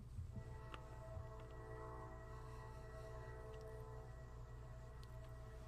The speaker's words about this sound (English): Sorry about the train if you guys can hear that. The train's closer to me than it is you. Come on, train, shut up.